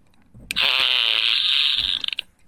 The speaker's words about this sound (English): I got this little thing. It kind of looks like an air horn. It's a uh, authentic sounds fart blaster.